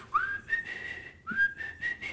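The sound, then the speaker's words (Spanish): Someone whistles a rock song melody in two sustained, rising phrases, clear, with a short gap between them and no talking. “nunca he llegado a ese tono de silbido, pero él sí puede chiflar así machín.”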